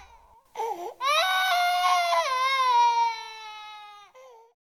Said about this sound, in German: In diesem Sinne wenn Sie mal wieder ein Baby im Gottesdienst schreien hören, denken Sie daran, das ist einfach Zukunftsmusik.